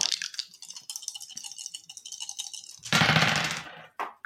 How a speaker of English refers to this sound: All right, that's three dice. Give me your roll. Let's go.